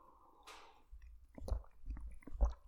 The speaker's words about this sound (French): je prends juste une gorgée.